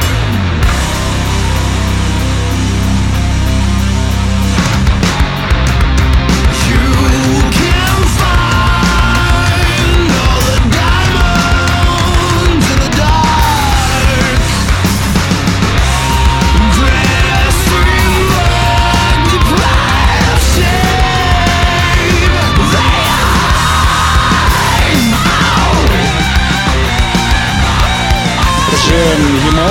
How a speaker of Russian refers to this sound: Поэтому в качестве перебивок у нас сегодня фрагменты новейших треков, буквально из-под мастеринга, их пока нигде нет, э, поэтому, можно сказать, эксклюзивная премьера.